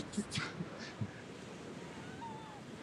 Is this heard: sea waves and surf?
yes